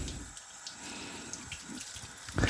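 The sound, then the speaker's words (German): Water runs steadily from a tap onto sauerkraut being rinsed in a sink, a continuous splashing hiss with a few soft knocks and a louder splash near the end. “Und damit das Ganze nicht zu sauer wird, spüle ich das jetzt ab und tropfe das, presse das wieder ein bisschen aus.”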